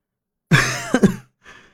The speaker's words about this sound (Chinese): 杨木停了停，咳嗽了一声，继续说道